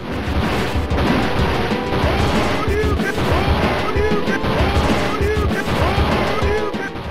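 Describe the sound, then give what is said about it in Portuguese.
Loud, continuous crashing and banging as a car is smashed apart, with repeated metallic impacts and crunching debris piling up for several seconds. “Vamos lá, barulho de carro sendo destruído.”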